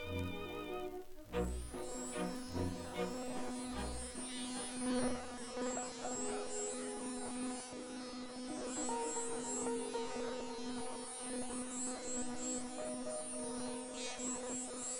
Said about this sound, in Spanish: Frente a mí, la abeja. Su tamaño es exponencial sin perder su insignificancia volumétrica, expresión ambivalente.